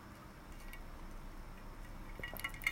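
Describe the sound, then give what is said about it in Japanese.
A few soft clinks of ice against glass near the end, light and brief, after a stretch of quiet hiss with no talking, as someone at home drinks, sipping blend tea now and then. “今もだからこれね、氷の音するから。”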